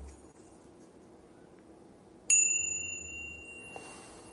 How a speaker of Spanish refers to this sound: Y a los 10 o 15 minutillos tocaré el crótalo, ...de campanilla, este sonido.